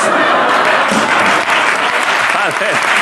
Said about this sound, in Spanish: No, un aplauso para este muchacho